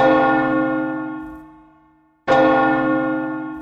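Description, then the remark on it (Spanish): A large church bell tolls twice, each strike ringing out loud and resonant with a long humming decay before the next blow lands. No voices accompany it. “Pero si hay alguna emergencia, tocaremos las campanas de la iglesia para que salgan de sus cazas.”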